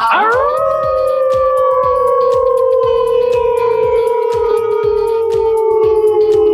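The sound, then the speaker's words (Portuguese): Hosts from Alcateia Empreendedora, a young entrepreneurs group in Caçador, Santa Catarina, imitate a wolf howl, longer than usual, rising quickly then holding one long, steady note that slowly sinks in pitch for several seconds, over a steady rhythmic musical beat. “Ó, percebeu que até o uivo hoje foi mais comprido.”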